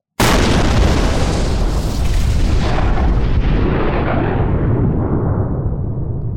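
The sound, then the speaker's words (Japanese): A sudden loud gunpowder explosion bursts out, followed by a long, dense roaring rumble that slowly fades and loses its high end over several seconds, with no voices present. “一緒に猫へやって、一緒に爆発しようよ。爆発しますよ。”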